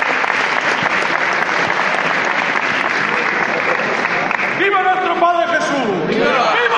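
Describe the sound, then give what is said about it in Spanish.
Loud, sustained applause from a large crowd gathered as the throne of Nuestro Padre Jesús, the Señor de Jaén, is raised, a dense steady clatter of clapping throughout, with a voice rising over it toward the end. “Y arriba, el trono de nuestro Padre Jesús, por primera vez ante el aplauso de todos los aquí congregados.”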